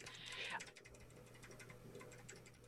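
Fast typing on a mechanical keyboard with clicky switches, a dense run of crunchy, overlapping key clicks with a low electrical hum beneath, fairly quiet.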